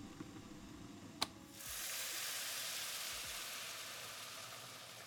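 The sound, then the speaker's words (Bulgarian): A short clink, then a sudden loud, steady hiss and sizzle as boiling water is poured over vegetables in a hot pot, just enough to cover them, with no talking. “След което заливам с вряла вода, колкото да покрия зеленчуците.”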